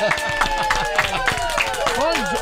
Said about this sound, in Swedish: Det är en liten applåd på det va?